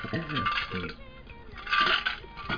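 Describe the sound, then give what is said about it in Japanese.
Glasses clink together in a toast, a bright ringing tap that lingers briefly, with voices chattering just before. “じゃあ乾杯でーす。乾杯。”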